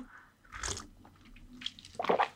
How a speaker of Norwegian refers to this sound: Og jeg prøver ikke å slurpe i jeg, jeg, jeg, lener meg liksom bort fra mikrofonen